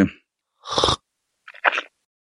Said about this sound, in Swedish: Nu har jag ju då den här lilla koppen och så eh, locket över ska vi se här nu så att det inte händer någonting. Mm. Nu är det sörpling på gång då.